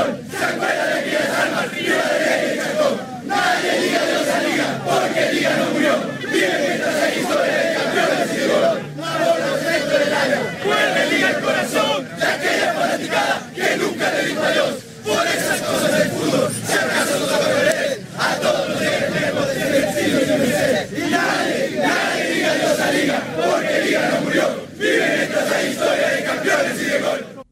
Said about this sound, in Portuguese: A gente ouviu a torcida da LDU cantar uma canção que a gente intitula Los 43 de Glória.